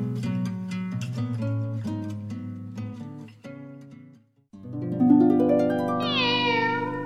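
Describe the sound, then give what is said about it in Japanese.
A black cat lets out two long, drawn-out meows as a greeting, separated by a brief pause; the second rises and wavers in pitch. No one speaks. “今回はネタじゃなくて、これからもお世話になりますっていう、黒猫のごあいさつ。”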